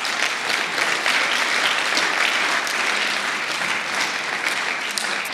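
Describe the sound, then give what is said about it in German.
A crowd claps steadily and loudly for several seconds, applauding God, a dense, continuous wash of many hands with no voices standing out. “Hey, ja, gebt Gott einen Applaus.”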